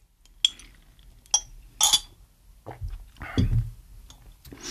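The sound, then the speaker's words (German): A glass drinking straw clinks against a glass in three bright, ringing taps spaced about a second apart, followed by softer rustling and low sloshing sounds. “Ich glaube, man hört schon, das ist einfach ein Glasstrohhalm. Der klingt immer besonders cool.”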